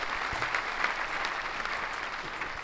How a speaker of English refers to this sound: A round of applause again. Let me stop this sound.